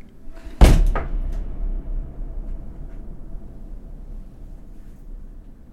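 A heavy door in a water tower bangs open with a sharp, loud clank followed by a second knock, then a long, booming reverberation that slowly decays.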